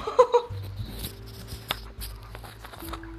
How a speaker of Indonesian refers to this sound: hujan ya.